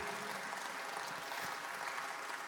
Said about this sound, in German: Gebt doch selber einen Applaus, weil das ist amazing, was Gott effektiv bewirkt.